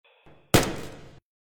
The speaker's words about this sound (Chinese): 随着一声枪鸣，录音戛然而止。